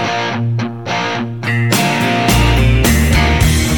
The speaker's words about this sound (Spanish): no tiene tantos años, de hecho tiene algunos, poquitos, es pequeña, es eh, una gran canción de uno de los artistas más importantes que tiene nuestro país. En unos años va a ser un clasicazo.